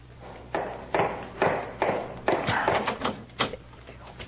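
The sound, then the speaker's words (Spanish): A cane raps against a door in a steady series of about eight sharp, hollow knocks, moderately loud, with no voices present. “Llegué hasta aquí y llamé con el bastón.”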